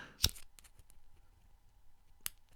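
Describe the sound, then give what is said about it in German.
Two crisp strikes about two seconds apart, like a lighter or match being lit for two Advent-style tealight candles at a dimly lit desk, each with a faint scrape and quiet rustling in between. “Deswegen zünde ich jetzt hier zwei adventsartige, adventliche Teelichter an.”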